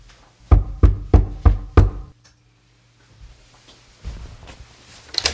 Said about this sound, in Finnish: Joku, mä käyn, joku koputtaa, mä käyn nopeasti tuossa ovella.